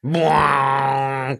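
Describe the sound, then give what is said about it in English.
A single voice imitates a booming movie-trailer brass hit, holding one loud, low, buzzing note steady for over a second before it cuts off abruptly, with no other sound. “I mean, that noise is pretty good, but it's like in every trailer.”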